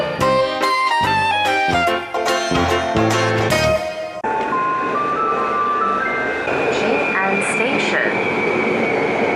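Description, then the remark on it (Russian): A train on the new circular line of the Taipei metro: a bright, melodic chime plays for about four seconds, then gives way to the steady, loud rumble and whine of the train running, with faint high tones over it. “начали рассказывать вам о новой кольцевой ветке тайбэйского метро.”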